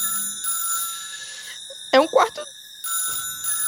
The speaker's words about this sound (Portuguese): Quando você chega no seu quarto, você consegue ouvir o telefone do seu apartamento tocando.